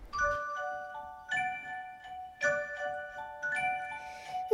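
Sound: small bells ringing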